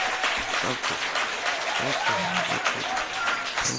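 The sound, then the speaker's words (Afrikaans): An audience applauds a woman steadily with dense, continuous clapping throughout, a few voices faintly mixed into the crowd noise. “Klap hande vir haar.”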